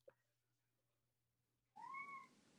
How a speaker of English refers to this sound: the cat agrees with me apparently.